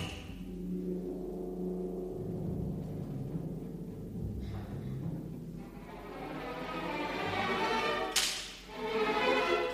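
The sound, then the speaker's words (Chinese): A sharp orchestral slapstick whip crack snaps out late in the passage, a single loud bright clap cutting through sustained, full orchestral music that plays throughout. “在这些乐器合起来演奏之前，先听一听响鞭。”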